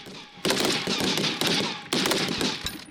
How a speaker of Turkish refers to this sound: Ateş Serbest 2020'de yerli ve milli üretim fırtına obüsleri, Korkut hava savunma sistemleri ve milli piyade tüfeği ile atışlar yapıldı. Belirlenen hedefler tam isabetle vuruldu.